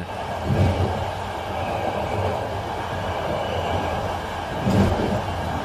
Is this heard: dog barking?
no